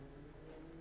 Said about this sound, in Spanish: Perdón si se escucha un motor por aquí afuera, pero alguien está afinando.